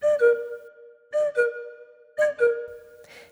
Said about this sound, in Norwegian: En annen uvanlig ting dere vil høre i et orkester, er en gjøk. Det er et instrument som spilles på av slagverkerne i orkesteret, og den høres sånn ut.